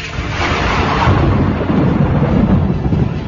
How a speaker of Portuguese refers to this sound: Todos entram em desespero total diante da tempestade, diante dos trovões, diante dos relâmpagos e raios.